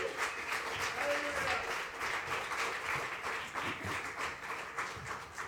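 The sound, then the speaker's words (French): A crowd applauds the musicians steadily for several seconds, dense overlapping claps with faint voices mixed in beneath the clapping. “On les applaudit, hein?”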